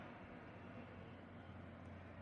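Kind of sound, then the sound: vehicle, airplane passing overhead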